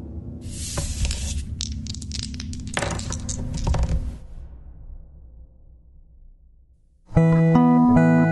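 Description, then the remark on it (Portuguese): Dice rolled for a role-playing game test clatter and tumble across a hard surface for about four seconds, a busy rattle of clicks that dies away, followed after a pause by a bright, tonal musical jingle. “Então vamos rolar os dados.”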